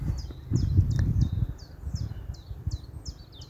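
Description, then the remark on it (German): Birds singing in a steady run of about ten short, high chirps, evenly spaced, over a low rumbling, rustling background that fades slightly toward the end. “Und im Übrigen das, was ich gerade als Beispiel genannt habe, ist tatsächlich ein Gedanke, den ich sehr häufig habe, wenn ich Vögel höre.”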